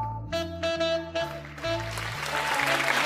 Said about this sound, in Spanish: Gracias, gracias. Gracias. Un fuerte aplauso para Fernando Arrabal.